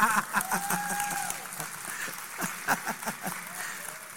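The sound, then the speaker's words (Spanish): During a church sermon, a crowd applauds in a steady, dense patter of many overlapping claps, moderately loud throughout, with a few faint tonal calls or whistles drifting over the clapping. “Gracias por el aplauso.”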